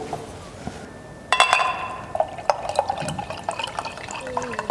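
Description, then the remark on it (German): Sparkling water is poured into a glass, starting with a clink and then a steady splashing fill with fizzy crackling and small glassy taps throughout. “magst du noch einen Schluck Wasser haben? Still, sprudelig habe ich anzubieten.”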